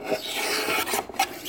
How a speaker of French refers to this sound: C'est le son du rabot qui est en train de raboter une touche de violon. Donc c'est la partie en ébène du violon, là euh, où le musicien ou la musicienne vient jouer en appuyant les cordes. C'est un son que j'aime bien.